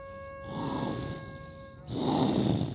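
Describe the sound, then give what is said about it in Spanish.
A tiger roars twice in close succession, each a rough, breathy bellow lasting about a second, the second louder and fuller, with faint steady tones humming underneath. “un día estando yo sentada en el jardín con Bima en mi regazo, apareció un tigre”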